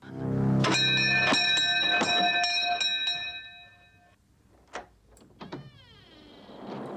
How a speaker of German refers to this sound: Daraus ergibt sich dann immer so eine sehr spannungsgeladene Szene, wenn es an der Tür klingelt.